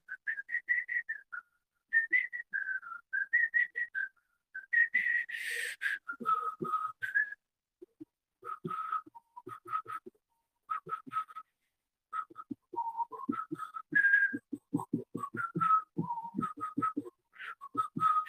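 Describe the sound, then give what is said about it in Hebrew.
A person whistles a long, wandering melody in short bursts and trills, with brief pauses between phrases, clear, with no talking over it. “אה, כי עושים את זה לאורך זמן, ו, ו, ולא רק זה, עושים את זה גם עם שריקות, כן?”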